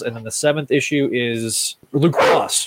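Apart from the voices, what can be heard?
dog barking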